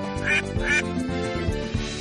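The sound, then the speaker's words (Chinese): Two bright, nasal duck quacks sound in quick succession early on, set over a steady, bouncy musical backing that carries on after them. No one speaks. “首先，你必须渡过小鸭池塘”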